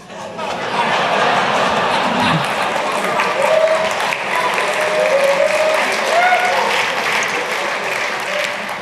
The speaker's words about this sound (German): Also falls jetzt, falls jetzt jemand von der Tagesschau zusieht, der Applaus, der war für euch.